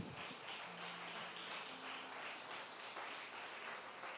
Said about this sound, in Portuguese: Você pode dar um aplauso ao Senhor nessa noite? Aleluias!